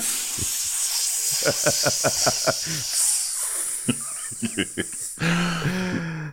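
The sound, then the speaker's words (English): A broken shower runs with a steady, bright hiss of spraying water throughout, while a voice makes short rhythmic bursts over it and a fuller voiced sound comes in near the end. “No, that was actually just the shower. It's broken.”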